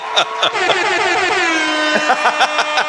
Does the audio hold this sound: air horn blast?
yes